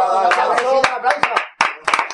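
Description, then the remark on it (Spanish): A few scattered, sharp hand claps ring out in quick succession while voices chatter and laugh loudly over them. “Ah, amigo, Ahí, ahí, un aplauso.”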